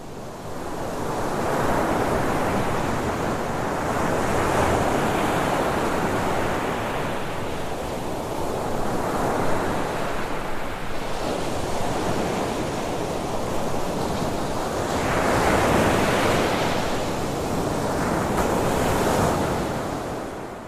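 Sea waves at night roll and wash steadily in broad swells, a continuous surf with rising and falling surges and some wind hiss, no voices present.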